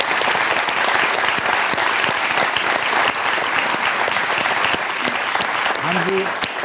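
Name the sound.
audience applause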